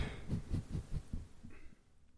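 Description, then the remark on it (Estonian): A low, croaky burp with a rapid rattling pulse, fairly quiet, lasting about a second before fading out. No one speaks. “ma kohe krooksun, vabandage mind.”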